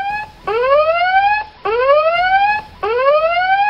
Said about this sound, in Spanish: Con una alarma de este estilo se les puede levantar a los cadetes a las 5 de la mañana perfectamente para formar y acudir a solucionar una emergencia